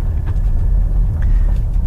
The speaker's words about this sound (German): Jetzt also gerade nicht, weil ich ihn schon leer gefahren habe. Trotzdem wird er jetzt elektrisch anfahren. Also ein bisschen Saft ist dann doch noch da. Und dann kommt gleich mal der Verbrenner dazu.